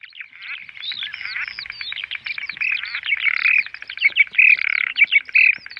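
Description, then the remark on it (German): A loud, dense chorus of bird chirping mixed with frog calls, rapid overlapping tweets and croaks carrying on continuously and growing busier toward the end, with no voices, heard by visitors in a dark corridor of a visitor house in Havelberg, Germany. “Das lautstarke Gezwitscher und Gequake hören die Besucher im Dunkelgang im Haus der Flüsse in Havelberg.”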